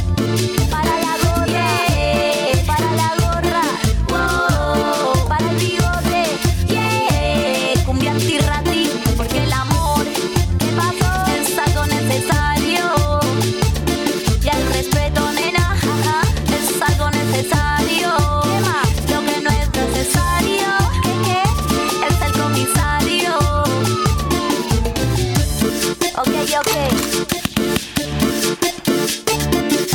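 A cumbia song plays loud and steady, with a bouncing bass-and-percussion groove repeating on a regular beat and melodic lines gliding over the top, no talking.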